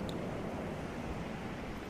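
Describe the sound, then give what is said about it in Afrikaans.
Steady, gentle wash of calm ocean waves rolls on without a break, a soft continuous hiss of water, with no voices present. “Rustige golwe in die agtergrond”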